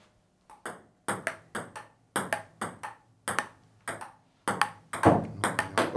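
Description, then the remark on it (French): A rapid table tennis rally: sharp, bright clicks of the ball striking paddles and table in a steady back-and-forth rhythm, around fifteen hits, quickening toward the end with no voices. “Très, très bel échange, mais qui vient de euh, malheureusement. non, non, il y a eu filet”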